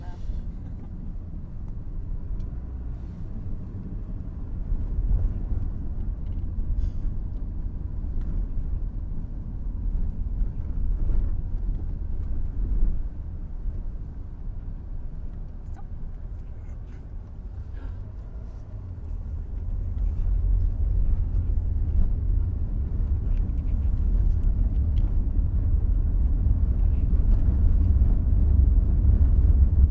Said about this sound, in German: Abend im Winter an einer Kreuzung in begrenzter Landschaft. Autos passieren, nichts verrät das Ziel.